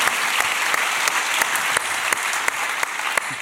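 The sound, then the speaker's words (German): A crowd at a live show in the Markthalle applauds steadily and loudly while the guest's own sharper claps stand out on a regular beat, about three per second, over the dense wash of clapping. No one speaks. “Jetzt weiß ich übrigens endlich mal, warum bei der Oscarverleihung die Nominierten immer selber klatschen. Das ist mir gerade selber oh. passiert.”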